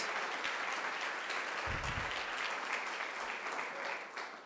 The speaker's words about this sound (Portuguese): Aplauda mais forte, gente.